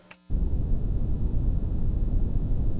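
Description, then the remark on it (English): A steady, deep rumbling hiss of brown noise, used as a study sound to help focus, starts abruptly after a brief quiet moment and continues at a constant, loud level, heavy in the low end with no voices. “The clip you just listened to is actually called brown noise.”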